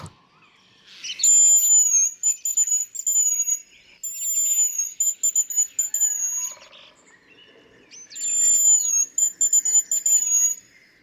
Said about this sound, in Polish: I nie, nie. Nie jest to gwizdek, y, jakaś ludzka czy dziecięca zabawka. To jest jak najbardziej prawdziwy, naturalny odgłos pewnego ptaka